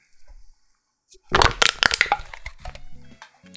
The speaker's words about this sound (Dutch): Ja, dan is het tijd om, het, ehm, tijd om een blikje leeg te drinken. Goed. Dan is het tijd om een blikje te kraken.